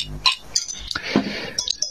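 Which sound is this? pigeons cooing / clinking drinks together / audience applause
clinking drinks together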